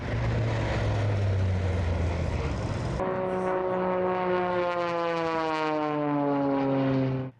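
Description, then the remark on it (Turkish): A loud jet aircraft roars steadily overhead at the Sivrihisar Air Show in Turkey, then its whining engine pitch slides gradually downward as it streaks past, fading abruptly at the end; jets flown by skilled pilots perform aerobatics, including the Turkish Air Force's Turkish Stars. No voices are heard. “Usta pilotların kontrolündeki jetler gökyüzünde dans etti.”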